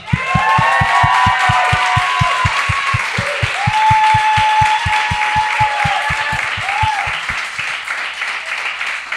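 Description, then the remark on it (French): Loud audience applause for Brian Piton and Cathy Gauthier, with cheers and high whistles, carried over a steady, rapid thumping beat that stops after about seven seconds while the clapping continues. “Les deux, mesdames et messieurs, une bonne main d'applaudissements pour Brian Piton et Cathy Gauthier.”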